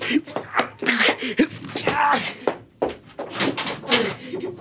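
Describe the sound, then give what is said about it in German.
A locked door is rattled and jolted in sharp, clattering bursts without opening, while a person's strained voice murmurs and groans over the noise. “Warum geht die, die, die Tür nicht auf? Wieso hat sie wieder abgeschlossen?”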